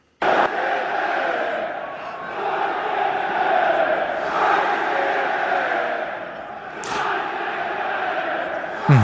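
A large crowd of home and away football fans chants a countdown that runs to the twelfth minute of the match, many voices merging into a loud, sustained roar that swells and dips briefly before surging again, with a sharp bang near the end.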